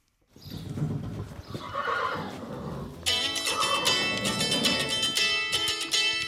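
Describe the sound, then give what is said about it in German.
A horse with a rider on its back, almost out of the stable door, whinnies loudly, a long shrill neigh, while hooves clop steadily in the background; partway through, a bright, high, tonal phone ringtone cuts in over the horse. “Ich sitze schon auf dem Pferd, fast zur Stalltür raus.”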